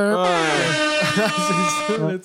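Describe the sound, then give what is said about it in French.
A voice imitates a honking horn with a loud, nasal blare held for about two seconds, its pitch wavering and breaking up toward the end. “les gens l'écoutent, puis vont peut-être faire des klaxons à la fin juste pour dire c'est bon.”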